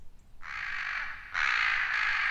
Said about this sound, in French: Et comme il pensait être le plus grand chanteur du monde, il reprit son souffle et croassa de plus belle.